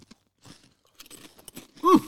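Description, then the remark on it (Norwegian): Crunching of very thin Sørlandschips potato chips close to the microphone, a series of irregular dry, crackly bites and chews, ending with a short voiced hum. “Er det noe vi skal knase inn i mikrofonen?”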